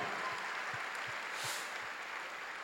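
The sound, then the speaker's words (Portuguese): An audience at a church service applauds the Lord together, producing a steady, dense wash of clapping that holds evenly for the whole stretch, with faint low thumps scattered underneath and no voices. “Aplauda ao Senhor, aplauda.”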